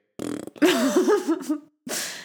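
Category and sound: vocal imitation, voice imitating a fart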